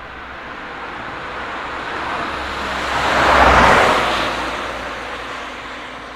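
car driving

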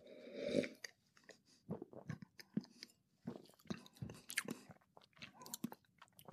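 chewing food

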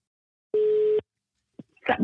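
telephone ringing tone

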